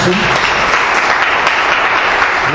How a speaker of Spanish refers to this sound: Muy bien, dale un aplauso al Señor.